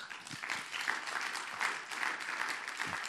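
Steady audience applause, a dense wash of many hands clapping at an even, sustained level for about three seconds with no talk over it.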